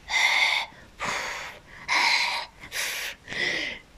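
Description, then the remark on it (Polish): A voice imitates Darth Vader's heavy mechanical respirator breathing: five loud, hissing breaths, alternating in and out at a slow, steady rhythm with a faint whistling edge. “to na samym końcu, ostatnie sekundy był oddech Wejdera. Wiecie, charakterystyczny oddech Wejdera.”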